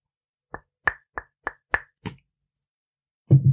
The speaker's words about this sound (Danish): Det lød. Det lød mærkeligt. Det lød, som hvis man slog på glas.